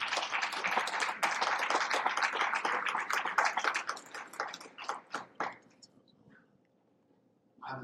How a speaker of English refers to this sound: Let's give the Lord a round of applause.